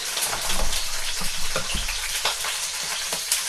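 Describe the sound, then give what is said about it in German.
Steady, dense sizzling of bell peppers frying in a hot pan, turned with a fork or tongs so they brown a little on all sides, with occasional sharper crackles and pops, fairly loud, with no voices. “Dann nehmen wir eine Gabel oder eine Zange zum Umdrehen der Paprikaschoten, die von allen Seiten ein bisschen angebraten werden.”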